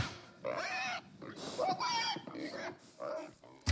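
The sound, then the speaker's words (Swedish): Several pigs oink and grunt in a string of short, nasal bursts, moderately loud, with brief pauses between the calls. “Så att man ska sälja grisboxar förstås, för då får man leta upp grisar istället.”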